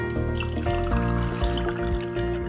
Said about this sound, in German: Schenk dir mal was ein.